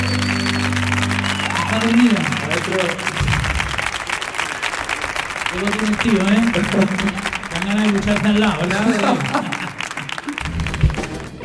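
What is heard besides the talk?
audience applause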